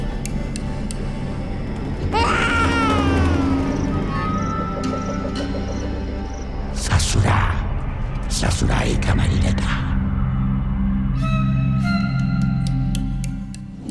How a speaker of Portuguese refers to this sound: É assim, se você for parar para pensar, tanto a voz da Matinta, quanto do Saci, quanto do Jagunço, e quanto a do bebê, aquele choro estridente.